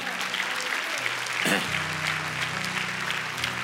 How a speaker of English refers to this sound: Can we give the Lord a hand clap for that?